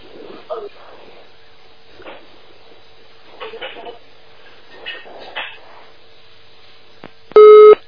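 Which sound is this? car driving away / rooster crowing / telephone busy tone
telephone busy tone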